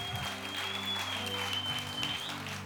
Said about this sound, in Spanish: Dele un fuerte aplauso a su Dios si usted cree que para Él no hay nada imposible.